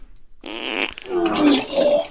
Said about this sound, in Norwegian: Uh, og så får du ett plusspoeng til pga. den fantastiske prompelyden.